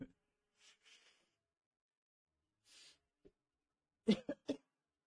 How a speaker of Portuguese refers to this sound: quando você puxa muito forte, ele vai lá na garganta. Aí dá uma coceira, você, você tosse pra caramba.